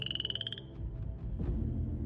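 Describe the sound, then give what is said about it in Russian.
A frog hiding in a reed thicket gives a short, raspy pulsing croak, rattling rapidly for about half a second, then fades into a low, murky wash of background noise with no voices. “Противно квакала лягушка, спрятавшаяся в зарослях камыша.”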